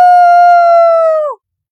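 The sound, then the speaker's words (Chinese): A father imitates Tarzan's jungle yell with one sustained, loud, steady-pitched howling cry lasting over a second before cutting off abruptly. No other sounds. “以前我们总是学。人猿泰山吼，就像这样吼。”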